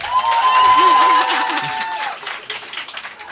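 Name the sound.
audience applause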